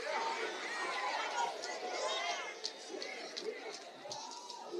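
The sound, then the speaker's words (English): A large audience shouting and cheering together in response, in a sustained, dense roar of many overlapping voices, loud, with no single speaker standing out. “I need to hear the sound of all of those who got sat down.”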